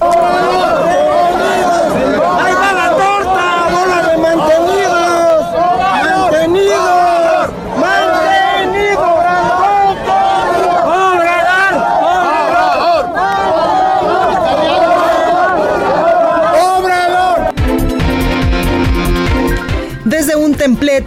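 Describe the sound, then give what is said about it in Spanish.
A loud, tense crowd confrontation in the Plaza de la Constitución, Mexico City, on a Sunday, as members of the Marcha por la Verdad, la Justicia y la Paz are attacked by alleged supporters of President Andrés Manuel López Obrador: many voices shouting over one another without pause, with a harsher burst of commotion near the end. “Al entrar a la Plaza de la Constitución, sus integrantes fueron agredidos por presuntos simpatizantes del presidente Andrés Manuel López Obrador.”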